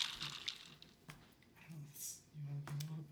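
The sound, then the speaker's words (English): Water pours into an older glass Chemex pour-over coffee maker with a soft, hissing trickle and a few light splashes and clinks, fairly quiet, while a low voice murmurs briefly near the end. “So I know I'm thinking what happens when we pour this up through here.”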